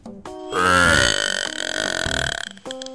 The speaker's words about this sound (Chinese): 陆渣渣是个没教养的小魔怪。他有一些让人特别恶心的臭毛病，比如打嗝